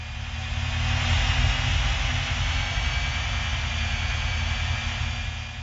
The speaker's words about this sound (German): Ich finde, das hört sich an wie ein Raumschiff, was abhebt. In Wirklichkeit ist es unsere Waschmaschine, die gerade schleudert.